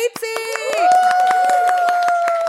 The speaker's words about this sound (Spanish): Un aplauso para